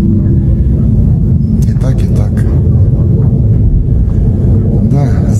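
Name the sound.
airplane flying overhead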